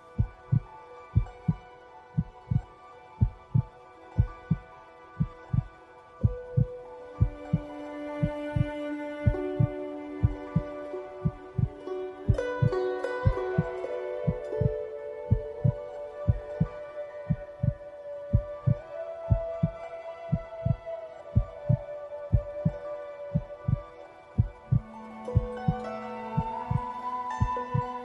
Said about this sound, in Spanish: Siente las pulsaciones de tu corazón. ¿Lo que sientes te agrada?